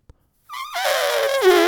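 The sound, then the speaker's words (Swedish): A single loud war horn blast, a brassy, buzzing tone that enters with a sliding pitch drop and then holds steady and rich. A tiny click comes just before it. “Det var ett krigshorn.”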